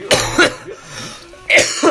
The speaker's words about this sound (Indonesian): aduh maaf nih di di Swiss dingin banget jadi batuk-batuk